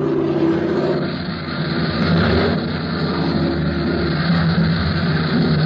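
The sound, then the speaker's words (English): A propeller plane's engine roars steadily and loudly overhead as it approaches an airfield, a continuous throbbing drone with no voices, holding nearly constant for the whole stretch. “and then the officer heard the roar of an approaching motor.”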